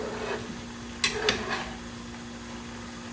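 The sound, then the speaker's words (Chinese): A pot of noodles with meat and bok choy cooks on the stove: a steady low bubbling hiss and hum, broken by three quick metallic clinks of a utensil against the pot. No one speaks. “好啦，那我的面可以出锅了，大家拜拜，阿丢。”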